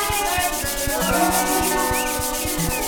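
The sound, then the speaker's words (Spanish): Steady, rhythmic sanding of wood by a carpenter in a small workshop in Granbourg, Paris, a raspy back-and-forth scrape repeating roughly every quarter second, loud and continuous with a faint tonal hum underneath and no voices. “José se apura a cortar, encolar y lijar las maderas con la habilidad de un carpintero.”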